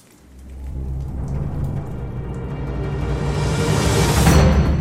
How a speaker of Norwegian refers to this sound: Nei, ikke den stormen som du lagde sjøl!